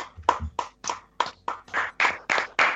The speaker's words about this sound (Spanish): No, pedí un aplauso a la memoria de Remo